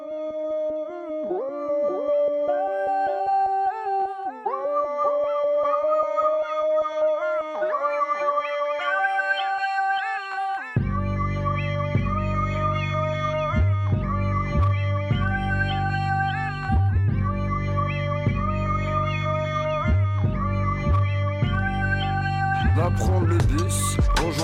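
A rap track's intro is played on air: a wavering, howl-like melodic line alone at first, then a heavy, booming beat with deep bass drops in about halfway and pulses steadily and loudly.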